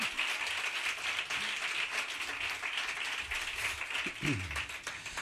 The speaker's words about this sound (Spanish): Que a los guitarristas también se les aplaude, compañeros. Hombre, por supuesto.